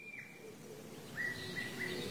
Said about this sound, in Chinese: 而鸟叫声是一种短促而简单的声音。